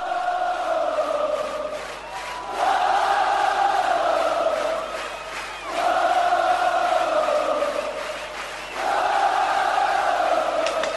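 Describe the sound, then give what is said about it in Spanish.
A huge Argentine audience at the Kilmer Rock 2012 festival gives an ovation, roaring and chanting in sustained waves, swelling in loud rhythmic surges every few seconds with dips between, a dense wall of cheering voices with no single speaker standing out. “Escucha, imagínate, vos Ferro que ya lo has vivido, pero mirá lo que es esto, la ovación del público.”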